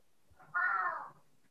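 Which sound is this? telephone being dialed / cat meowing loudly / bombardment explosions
cat meowing loudly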